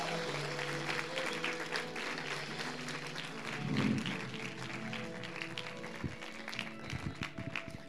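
An audience applauds steadily for Jesus, a dense wash of many hands clapping for several seconds, with sustained musical tones underneath and a brief louder swell midway.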